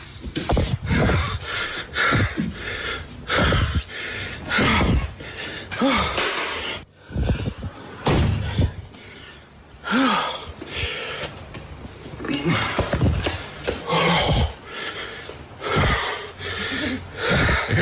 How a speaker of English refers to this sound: But what I want you to listen out for is his comment at the end of this section of panicked breathing, where he has just done all the screaming and all the swearing and all the shouting, right?